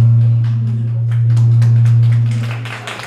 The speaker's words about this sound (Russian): Так, это ваши аплодисменты.